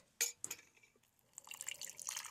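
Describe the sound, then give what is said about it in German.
Two light clinks, then lukewarm water splashes steadily into a glass, the pour growing fuller and brighter toward the end. Fairly quiet, with no talking. “Ich habe mir nämlich auch lauwarmes Wasser mitgenommen, damit es sich so ein bisschen besser und schneller auflöst.”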